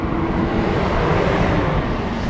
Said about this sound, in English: we're going to let this truck pass by,